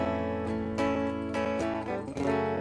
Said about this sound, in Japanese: みたいなこう裏の伴奏の音をしていたりしますあのー、ま裏裏メロというか、まあ、少しリズムっぽい感じもそうです、ね、するって感じですかね和音でちょっと後ろで広くなってるような感じですね、まあ、平たく言えるリズムギターってことだよね